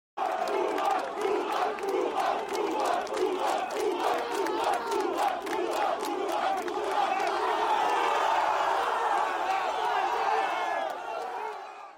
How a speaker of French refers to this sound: Vous venez d'entendre les plusieurs centaines de supporters lillois massés ce matin sur la route menant à Luchin pour encourager les joueurs du LOSC.